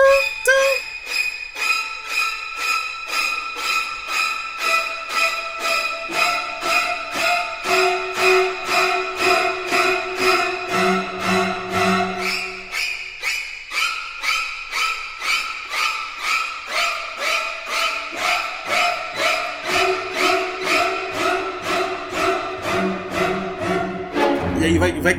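Stabbing violin strings from a horror film score, the technique of the iconic scene in Psycho: a relentless, rapid pulse of shrill, sharp strokes over shifting lower string notes, loud and unbroken throughout, with no voices.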